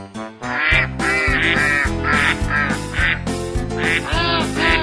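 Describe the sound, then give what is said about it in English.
Ducks quack loudly and continuously in rapid, overlapping bursts, with steady low tones running underneath throughout. “We'll be right back after Bob gets the ducks out of his living room.”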